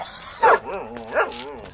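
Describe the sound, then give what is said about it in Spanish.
A hairless dog gives two sharp barks about a second apart, with whiny, wavering yelps and whimpers in between. “hey, perro, what's happening to you? How come you're all bald?”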